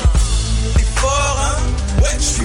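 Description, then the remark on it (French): A rap track from an album released in 2011 plays loud, with deep booming bass, sharp beat hits and layered melodic lines filling the whole stretch without a break. “extrait de l'album sorti en 2011”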